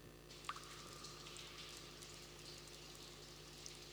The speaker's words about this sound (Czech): No a začalo jenom kapat. Říká si, občas jedna kapka, to není přesně to, za co já jsem se modlil, Bože.